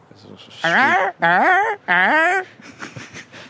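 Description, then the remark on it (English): A person imitates a Manx shearwater call with three loud, strained, wailing cries in quick succession, each swooping in pitch, followed by soft laughter. “We stayed the night on Skomer, two, two nights on Skomer, and you go to Skoma to spend the night, obviously, to hear the Manx shearwaters coming in.”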